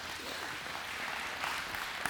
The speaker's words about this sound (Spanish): ¿Cuántos están de acuerdo con eso? Denle un aplauso a Cristo Jesús entonces.